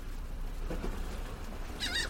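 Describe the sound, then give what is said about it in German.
Steady, low outdoor harbour ambience in Hamburg with a constant wash of background noise, then a single shrill seagull cry rings out near the end, clear. “Hafengeräusche, ja. Möwen extra ja, für dich.”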